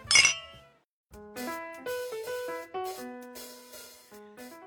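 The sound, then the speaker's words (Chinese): Glasses clink together once in a bright, ringing chime, as in a toast. After a brief pause, a light melodic tune of sustained notes starts and carries on to the end. “聊精酿，聊好酒，跟生活干杯！”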